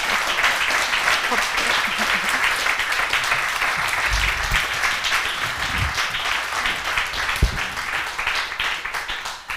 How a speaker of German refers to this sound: Bei uns begrüßen wir mit einem grossen Applaus den Christoph Suser.